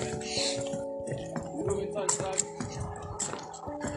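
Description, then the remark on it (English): A GoPro camera is dropped into water, followed by bubbling, dripping and sloshing, with faint muffled voices in the background throughout. “Dropping a GoPro in the water to see what it looks like.”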